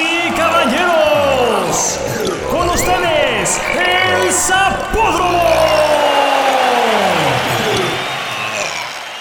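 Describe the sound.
A loud, nonstop string of fart noises, some recorded with the mouth and others taken from a sound-effects library, with effects applied. Buzzy, sputtering raspberries swoop up and down in pitch and tumble over one another for several seconds, with no talking.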